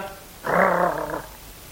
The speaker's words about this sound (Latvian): Ak, tu! Kāda nekaunība! Kas šeit ielaidis suni? Jā, jā, jā, un pie tam vēl kaut kādu sētas kranci. Jau pēc balss var pazīt.